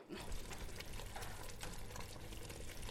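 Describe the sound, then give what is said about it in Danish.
Sugar syrup of sugar, glucose syrup and water boils steadily in a pot at 117 degrees, a dense continuous bubbling and sputtering with small pops, fairly loud, with no voices. “Og her har vi det så. Hovedpersonen. Sukkeret. Nu i kogende form.”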